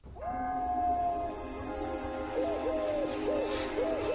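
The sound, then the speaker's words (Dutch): A human voice imitates a Eurasian collared dove's cooing: one long held hoot followed by a series of rising and falling coo notes, fairly loud with no other sounds. “Ja, dat is hem. Dat is hem, de Turkse tortel.”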